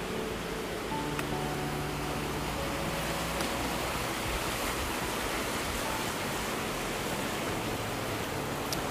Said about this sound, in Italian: Ecco qui, l'Adige di nuovo, forse si sente il fiume.